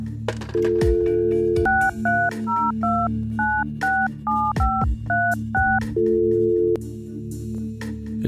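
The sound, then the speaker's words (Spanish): A dial tone hums, then a quick series of about ten touch-tone beeps as a phone number noted from an advertisement is punched in, each short dual-pitched tone crisp, followed by a steady tone again. “Cuando pasé el siguiente anuncio de dos por uno en cajas de chocolates y ositos de peluche, fue que decidí marcar al número que me ofrecía por lo menos una alternativa a toda esa publicidad para enamorados.”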